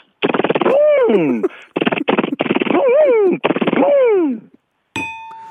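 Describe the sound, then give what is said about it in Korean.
A voice imitates a car tire being changed to snow tires for winter at a tire shop, making several loud rattling bursts like an impact wrench, with whining pitch sweeps, then a brief ringing metallic clang at the end. “이거 자동차 타이어 교환하러 갔을 때 예. 교환하는 소리 한번 해볼게요.”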